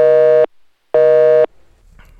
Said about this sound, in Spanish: se nos cortó ahí la, comunicación. En un momento regreso con eh, Hoy no hemos tenido nada de suerte con los teléfonos, la verdad.